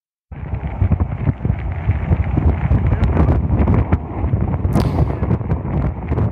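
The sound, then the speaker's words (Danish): A fire tornado spreads a huge wildfire on Kangaroo Island, Australia: a fierce, continuous roar of wind-driven fire, with dense low rumbling, crackling bursts and gusts buffeting the microphone. It stays loud throughout, with no voices. “Det her det er lyden af en tornado, der spreder en enorm ildebrand på øen Kangaroo Island ved Australien.”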